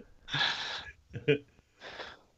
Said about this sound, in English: Nope, just a cough. Just a just cough.